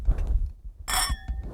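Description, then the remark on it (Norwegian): Wine glasses touch in a single bright clink during a toast, leaving a clear ringing tone that lingers briefly, over a low background rumble, with no one speaking. “Hvis jeg tar den inntil Å oh, ja, ja vi, vi, skal klinke, ja.”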